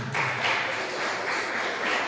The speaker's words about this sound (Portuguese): Aleluia. Dê uma salva de palmas para Jesus, irmão.